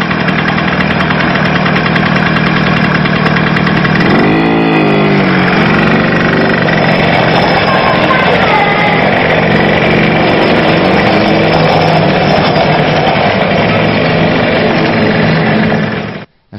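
A small petrol motorbike engine runs loud and close, holding a steady drone with a brief rise and fall in pitch early on, then cuts off abruptly at the end.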